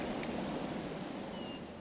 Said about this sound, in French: La mer, euh, la mer, les vagues et tout ça.